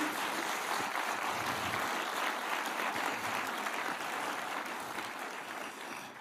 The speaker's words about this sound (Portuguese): Dê para Jesus uma forte salva de palmas, amém?